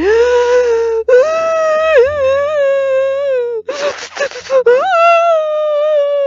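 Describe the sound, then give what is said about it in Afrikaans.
A voice imitates the 'ugly cry' named by Oprah Winfrey: long, wavering high-pitched wails broken by short gasping sobs, loud and strained, with a brief choppy sobbing burst near the end before a final rising wail. “en sy gaan staan in die middel van die groepie en julle sy gaan haal hierdie Oprah Winfrey noeme die ugly cry”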